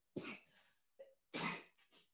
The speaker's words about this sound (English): Excuse me. I had to sneeze. Wasn't one, but I had to do two. I'm like, no more.